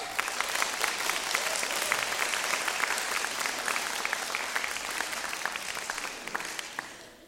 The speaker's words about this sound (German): Dann lass uns das doch mal zeigen und Gott danken für ihn, indem ihr auch mal einen Applaus gebt.